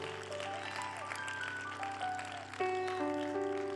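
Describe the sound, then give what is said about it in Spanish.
An audience claps steadily for Jesus Christ in a dense, continuous wash of applause, mixed with sustained keyboard chords that shift pitch and swell louder near the end. No voices stand out. “Dale un aplauso fuerte a Jesucristo.”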